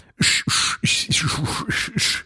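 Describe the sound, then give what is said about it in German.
A voice makes rapid fight-punching sound effects with the mouth: six or so sharp, breathy whooshes with a low thud at the start of each, loud in a steady flurry. “Soundeffekte sind übrigens aus meinem Mund.”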